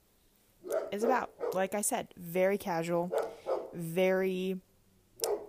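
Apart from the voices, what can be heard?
dog barking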